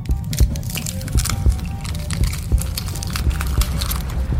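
Continuous crackling and crunching as an egg slowly splits open with a baby dinosaur hatching out, with sharp brittle snaps repeating irregularly over a low rumbling undertone. No voices.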